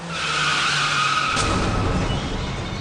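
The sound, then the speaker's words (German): Car tires skid loudly with a high, sustained squeal that turns into a rougher, scraping rush of noise halfway through, continuous for about three seconds, with no voices, as a 91-year-old driver's car races through a supermarket's shop windows in Saarbrücken's Eschberg district and stops after several meters. “Der 91-Jährige raste mit seinem Auto durch die Schaufenster des Supermarktes und kam erst nach mehreren Metern zum Stehen.”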